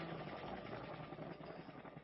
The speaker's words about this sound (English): This is from when we rode the helicopter.